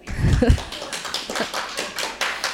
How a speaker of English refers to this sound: And Let's just note for the studio audience and those uh, now watching live, they were mostly, mainly females who were clapping, not the blokes.